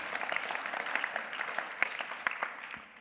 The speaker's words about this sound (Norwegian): så har vi i Norge og internasjonalt nå ca. 180 menigheter og forsamlinger som kommer sammen for det å stå sammen i det å leve misjonalt og leve ut. ikke det har vært en liten applaus? 180.